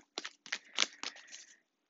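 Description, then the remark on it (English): A Modern Witch Tarot deck being shuffled, a quick run of four or five crisp, papery riffling bursts over about a second and a half, fairly soft, with no one talking. “We are shuffling the modern witch's tarot.”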